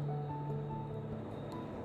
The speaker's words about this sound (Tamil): அதோ அந்த சத்தம் உன் காதில் விழுகிறதா சத்ருக்னா சத்ருக்னன் உற்று கேட்டுவிட்டு ஆம் பிரபு சமுத்திர கோஷம் மாதிரி இருக்கிறது மறுபடியும் மழையா என்றான் மழை சத்தம் அப்படி இருக்காது திருப்பார்கடல் உடைத்து கொண்டு விட்டது